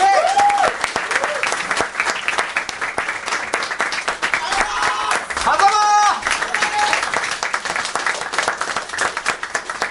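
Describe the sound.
An audience applauds steadily for the whole stretch, a dense, even wash of many hands clapping, with a few brief voices and a cheer rising over it now and then.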